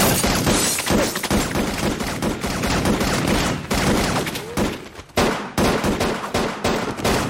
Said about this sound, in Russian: встают с двух сторон и начинают друг в друга палить, блин.